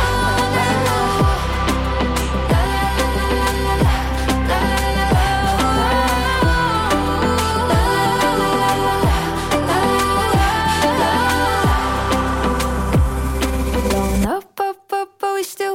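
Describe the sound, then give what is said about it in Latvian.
A loud, full-band pop song played on air by a radio DJ, with a steady thumping beat and layered melody, then cuts off abruptly near the end, leaving a few brief scattered sounds. “Diskžokais ir pierunāts, un diskžokais liek šo skaņdarbu.”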